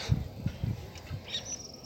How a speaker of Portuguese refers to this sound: Os pássaros aqui. Eu tô na Praia da Pinheira, em Santa Catarina.